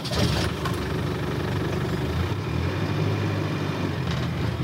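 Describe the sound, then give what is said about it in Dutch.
A car engine hums steadily as the vehicle drives along Tuscan mountain roads in Italy, a low, continuous rumble that shifts slightly in pitch partway through, with no voices. “De chauffeur op eh, de Toscaanse bergweggetjes, dat is...”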